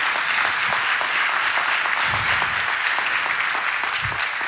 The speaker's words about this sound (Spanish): Si le démosle el aplauso grande al Señor. Démosle el aplauso grande al Señor.